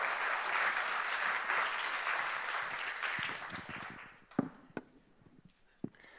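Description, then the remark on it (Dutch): An audience claps in a dense, steady burst of applause that fades out after about four seconds, leaving a few scattered, sharp individual claps. “Je mag best even klappen voor Teun.”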